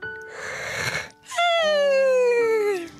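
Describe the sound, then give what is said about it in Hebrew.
A person imitates a woman's big yawn as she sits stroking a little tiger after sunset: a breathy inhale of about a second, then a loud, drawn-out voiced sigh that slides slowly downward in pitch, clear with no other sounds. “פיהקה האישה פיהוק גדול.”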